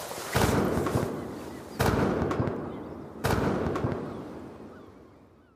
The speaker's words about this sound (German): Die schwachen Männer, die ihre zersetzte und völlig zersalzene Kleidung eng um sich gewickelt haben, werden mit Kanonenschüssen empfangen.